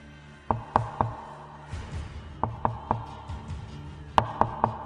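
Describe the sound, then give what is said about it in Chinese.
Knocking on a door, coming from the morgue, in three bursts of three sharp raps, each burst separated by a pause, with a low hum underneath and no voices. “这，这不是敲门的声音吗？那声音断断续续，如雷贯耳，百分之二百不会错。”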